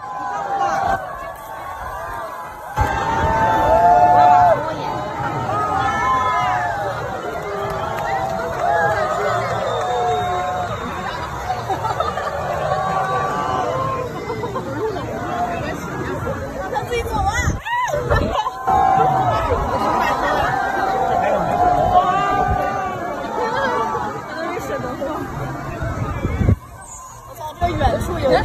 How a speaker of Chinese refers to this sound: 疫情让大家更加自觉地去使用户外的空间，比如这次的乌镇戏剧节就有大量的演出发生在户外，所以我们来听一听第八届乌镇戏剧节街头的声音。